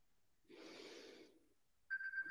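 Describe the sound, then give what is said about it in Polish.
A soft breathy exhale, then a steady electronic phone reminder tone starts up near the end and is cut off after about half a second. “Telefon dzwoni. E, nie, przypomnienie, przepraszam.”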